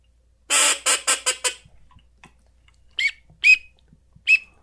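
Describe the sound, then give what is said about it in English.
A duck call sounds teal drake whistles: a quick burst of five raspy, reedy notes, then a pause and three short, sharp, high peeping whistles, clear with no talking. “So look, here's a teal. It's just a Drake. That's him. That's all he does.”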